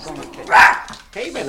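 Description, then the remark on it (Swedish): A small dog lets out a single sharp, high yap, fairly loud, between stretches of a person talking, in a family's newly built apartment. “och lilla hunden Dino i juni”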